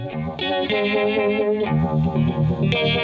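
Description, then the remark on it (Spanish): A loud, overdriven electric guitar plays sustained chords through a Univibe pedal, a throbbing modulation effect originally made for organ to emulate a Leslie speaker, giving a warbling, Leslie-like swirl that pulses steadily throughout. The guitar is heard on the left, with no one speaking. “¿por qué no creo un pedal que intente emular lo que se consigue con ese altavoz Leslie? Y de esa forma nació el Univibe.”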